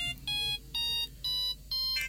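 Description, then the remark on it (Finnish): An electronic telephone rings in four short, evenly spaced bursts of a bright, high, buzzy tone, each separated by a brief pause. The ringing is steady and fairly loud, with no voices. “Jaha, mutta nythän se soikin.”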